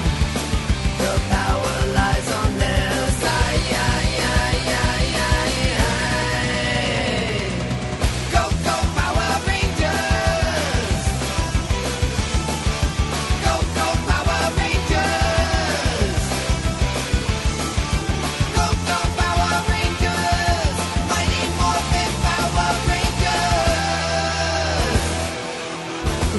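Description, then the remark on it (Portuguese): A loud, energetic song plays continuously with a full driving band and bright sung vocals, steady from start to finish, with no talking over it. “deixa a galera escutar que essa música é foda, mano.”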